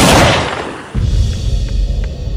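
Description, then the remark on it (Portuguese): A single loud gunshot, the first shot fired at point-blank range at a woman in a living room, cracks out and its echo fades over about a second. A low, steady rumble follows, broken by a few faint clicks. “Quando ela pensou em ter uma reação, foi o primeiro tiro.”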